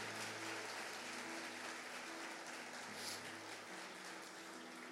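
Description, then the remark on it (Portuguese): An audience claps loudly and steadily for the full stretch, a dense wash of many hands with no pauses, and a low hum sits underneath. “Aplauda o Senhor por isso. Mais forte, gente.”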